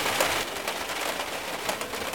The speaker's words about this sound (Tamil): கொஞ்ச நாள் கழிஞ்சு மழைக்காலம் வந்துடுச்சு மழை பெய்யுது இல்லையா இப்போ உங்களுக்கு சவுண்டு கேட்குது இல்லையா இந்த மாதிரி மழை பெஞ்சுட்டு இருக்குது